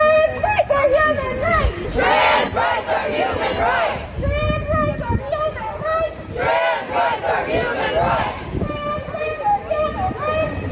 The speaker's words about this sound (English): The first one is just a classic chant. They always have this one.